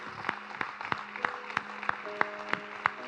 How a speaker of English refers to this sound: Come on, if your declaration is that Jesus is Lord of your life today, would you give him a hand clap of praise? Let's celebrate.